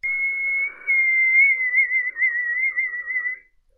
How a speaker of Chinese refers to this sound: 就在这个时候，黑暗中突然响起了一声口哨声